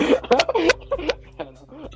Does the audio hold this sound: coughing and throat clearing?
yes